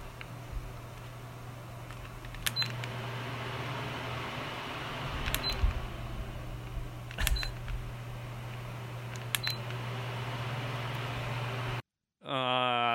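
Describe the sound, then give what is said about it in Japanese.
An electric fan, won at a neighbourhood summer festival in 2023 and in heavy use this summer, runs with a steady low hum and airy whir, punctuated by faint, regular clicks every couple of seconds; the noise cuts off abruptly near the end. “扇風機をね確かに扇風機の音取るのむずいですよねあのー、そう電話とかしててさ扇風機の前で喋ったりしてると今外いんのとか聞かれますからね”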